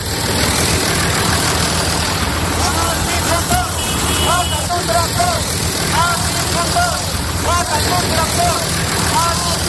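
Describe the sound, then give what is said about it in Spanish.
Tractor engines idle in a steady, heavy low rumble that never lets up, with a crowd of voices calling and shouting over the top throughout. The tractors are in the heart of Madrid, at Atocha, in front of the Ministry of Agriculture. “El sonido de los tractores es protagonista un día más.”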